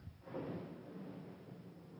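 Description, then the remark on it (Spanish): A low, rolling rumble of thunder swells up after a brief moment and lingers over steady, hissing, torrential rain on an afternoon of July 9 in Panama, during the rainy season, with no voices present. “como no sé si escucharon el, trueno, eh, estamos en eso.”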